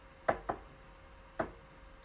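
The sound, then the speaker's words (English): A bottle of Florida water spray gets knocked over on the floor next to a bed: a couple of quick hard knocks close together, then another thud and a faint tap as it settles. No one speaks, and it is quiet otherwise. “I knocked over my um”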